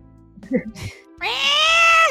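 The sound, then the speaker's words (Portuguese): After a brief mumble, a person lets out a loud, drawn-out screeching meow, imitating a cat yowling in the background while someone tries to serve a customer on the phone. It is harsh, holding steady for nearly a second. “Você tentando atender o cliente e o gato gritando pra caramba.”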